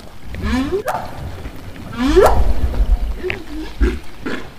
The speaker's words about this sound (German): stellt sie fest, die Wale sagen wieder Wupp. Okay, das kennen wir. Wupp. Haben wir ja vorher schon gehört. Ja, aber sie sagen es leise. Aha. Sie müssen nicht mehr schreien.